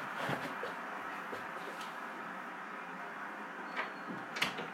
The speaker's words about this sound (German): Sorry, wollte noch die Tür zumachen, ähm, weil meine Eltern halt arbeiten.